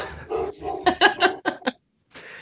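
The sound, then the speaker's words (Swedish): A dog lets out a quick run of about five sharp, fairly loud barks, following a moment of indistinct voice, then a brief pause before low sound resumes. “Ja, jag får gå och kolla vad det är han skäller på.”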